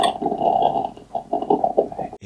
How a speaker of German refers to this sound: hinter mir macht die Kaffeemaschine Rabatz.